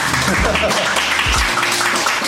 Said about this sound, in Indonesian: tepuk tangan